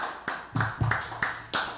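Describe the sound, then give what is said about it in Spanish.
Applause for an evangelist on the Nainas Radio Show sounds as a handful of sharp, separate claps spaced roughly evenly apart rather than a dense crowd roar, moderately loud with no voices over them. “Un aplauso para el evangelista.”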